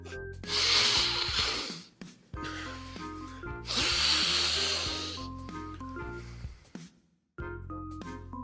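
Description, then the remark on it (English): Two long, loud snorting inhales of lines of Pixy Stix candy powder, each a harsh breathy rush lasting over a second, cut through steady background music with sustained low notes, and a brief pause separates them. “I don't have any DMT on hand, so what I've been doing instead, dude, is uh, while I'm waiting for more, I've just been snorting a bunch of uh, lines of pixie sticks, and you know, um, not not bad, not bad.”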